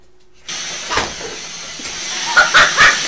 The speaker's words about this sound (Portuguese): Eu não acredito que o operador de áudio gravou a estática, cara. Tu tem o que na cabeça, operador de áudio? O cara gravou a estática aí, cara!